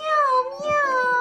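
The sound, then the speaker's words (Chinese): While a children's book is read aloud, a voice answers what sound a kitten makes by imitating a cat's meow in one drawn-out, rising-then-falling tone, fairly loud and clear, with a few soft low bumps underneath. “那小猫咪的声音是什么样的呀？”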